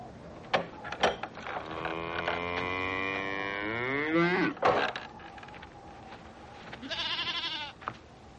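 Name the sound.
cows mooing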